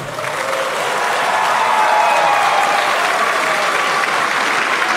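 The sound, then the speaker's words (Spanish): Sustained applause from a large crowd in an assembly hall, including Bukele's deputies, after Bukele's announcements: a dense, steady clatter of many hands clapping at full volume throughout, with no voices standing out. “Más aplausos.”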